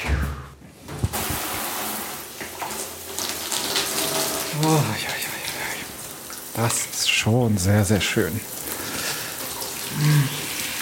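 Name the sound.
shower water running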